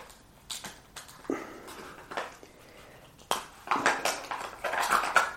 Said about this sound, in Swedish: en isbit i varje glas här så så håller det sig kallt lite längre.